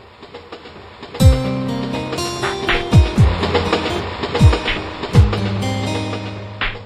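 In a silent train carriage, train wheels clack rhythmically over rail joints in loud, heavy thuds, some coming in quick pairs, over a steady low rumble of the moving carriage. No one speaks.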